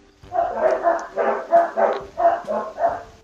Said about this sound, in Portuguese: Mas só para responder, deixa o cachorro parar de latir que eu, que eu respondo, que senão vai sair todas as latidas do cachorro aqui.